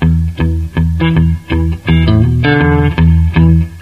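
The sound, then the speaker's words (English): An effected electric guitar plays a short picked lick in the key of E, about eight notes with a quick slurred hammer-on midway, the tone thick and slightly distorted, with no voices. “Get that nice little hammer on there.”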